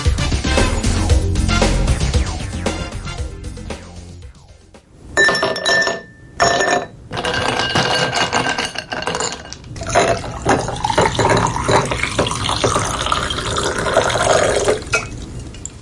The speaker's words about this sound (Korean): 네, 소리가 뭔가 시원한 느낌이 드시죠? 얼음을 유리컵에 담고 그 위로 물을 따르는 소리입니다.